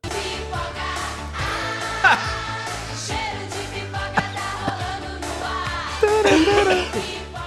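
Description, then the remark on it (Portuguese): A person chokes on laughter while coughing: a sputtering coughing fit mixed with choked laughter, several harsh bursts over a few seconds with strained breaths between them, one louder burst near the end. “Eu engasguei no riso com a tosse, é uma coisa.”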